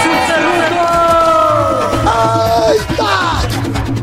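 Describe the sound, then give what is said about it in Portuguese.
A short, loud segment jingle packed with a shouting, cheering crowd, voices rising and sweeping upward in excited yells over dense, steady crowd noise for about four seconds. “Solta a vinheta, esse lã Faz barulho aí!”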